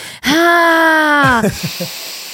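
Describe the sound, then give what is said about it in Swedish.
Someone imitates loud, heavy breathing: one long, drawn-out voiced exhale, followed by a few short, quick puffs of breath, loud. “Annars i typ såna stora salar med många människor, man typ hör någon, men som du när vi gjorde den här rapen, och någon som bara vet, andas lite för mycket.”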